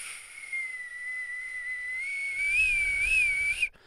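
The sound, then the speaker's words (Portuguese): A computer fan whirs loudly and steadily in a computer about three or four years old that is left switched on. A high, thin whine runs over a constant airy hiss. Its pitch wobbles slightly toward the end as a low rumble creeps in, with no voices. “Aliás, o, o, o barulho para quem estiver muito, muito atento e tiver um ouvido fantástico, nos podcasts, em que eu tenho o meu computador inevitavelmente ligado para ver os, os vossos comentários, uh, ouve-se lá atrás.”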